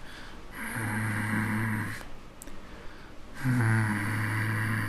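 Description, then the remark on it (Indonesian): A voice imitates a low, rumbling human growl, like an angry person growling, in two long, drawn-out bursts separated by a short pause, loud, with a harsh raspy texture. “pas gue coba balik badan uh, kedengaran suara orang menggeram kayak kayak gini nih kayak”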